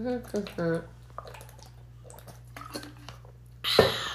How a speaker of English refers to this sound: i'm gonna take a sip of water really quickly okay